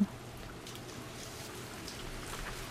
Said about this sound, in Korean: 그렇게 전 전혀 모르는 남자와 같이 우산을 쓰고 걸어갔습니다. 톡톡 우산 위로 떨어지는 빗방울 때문이었을까요?